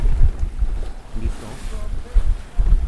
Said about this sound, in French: donc le vent nous pousse. Mais là, comme on doit aller face au vent, ben, on est obligé de tirer des bords.